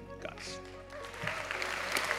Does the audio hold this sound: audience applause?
yes